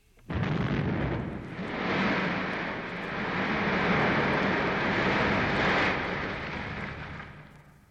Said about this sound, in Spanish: Las erupciones volcánicas van desde un suave derramamiento de lava hasta una explosión violenta.